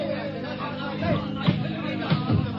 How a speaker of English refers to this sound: so I wait outside in the hall, and from the sound of it, it's a pretty stormy session.